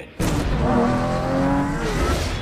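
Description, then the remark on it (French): A Lamborghini sports car engine roars and revs loudly, its pitch climbing and sliding in smooth harmonic sweeps for about two seconds after an abrupt start, with no talking over it. “Not very subtle. The Lamborghini”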